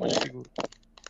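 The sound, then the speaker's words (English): A blind box foil bag tears open with a loud crinkling rip, followed by a few shorter crackly rustles of the wrapper. “Well, first, first bag tears up”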